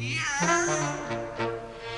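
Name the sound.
cat meowing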